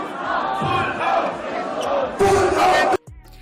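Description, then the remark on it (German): A large concert crowd chants "Nazis raus!" together in loud, rhythmic unison, a dense roar of many voices that surges louder near the end before cutting off abruptly. “Und dass die Crowd auf einer Wellenlänge war, hat man auch an folgenden Sprechchören gemerkt.”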